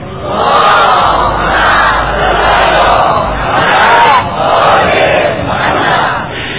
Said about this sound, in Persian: یک صلوات بلند خواهد بکنم